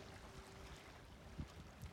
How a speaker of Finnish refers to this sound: Ja meri kohisee tuossa taustalla.